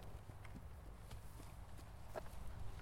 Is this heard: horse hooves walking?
yes